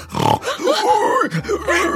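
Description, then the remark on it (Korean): An angry wild boar grunts and snorts loudly as it charges at a pine tree, a rough run of agitated, squealing calls lasting a couple of seconds with no talking. “가만히를 정통으로 맞은 멧돼지는 화가 났는지 제가 매달린 나무로 돌진을 하더라고요.”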